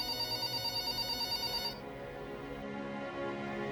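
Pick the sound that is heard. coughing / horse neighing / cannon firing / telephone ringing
telephone ringing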